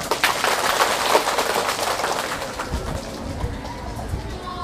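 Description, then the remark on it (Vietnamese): An audience, asked to give the teacher a big round of applause, breaks into sustained applause. It is a dense, crackling wash of many hands clapping at once that stays fairly steady and loud throughout, easing slightly toward the end. “nếu làm được việc đó thì hãy cho thầy một tràng vỗ tay thật là lớn”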